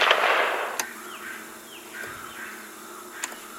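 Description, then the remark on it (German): Two sharp gunshots crack about two and a half seconds apart on a tape recording, over a steady hiss of tape noise, with faint chirping in the background and no one speaking. “Auf dem Tonband sind Schüsse und Schreien der Agenten zu hören.”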